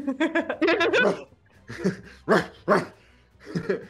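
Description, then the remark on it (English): Voices mimic dog barking: a rapid cluster of loud, yelping woofs, then a pause and a few more spaced barks, bright with a playful, sung quality. “we'll let the dogs out.”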